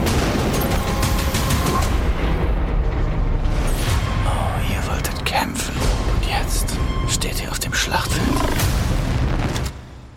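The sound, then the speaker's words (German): Dense, loud action mix from a TV series trailer: booming explosions and rapid gunfire bursts, with sharp cracks cutting through a constant roaring low rumble, over a shouted voice, then cutting off abruptly at the end. “Wie man schon hört, an Action-Szenen fehlt es der Serie nicht. In der Serie wird viel gekämpft und einiges explodiert.”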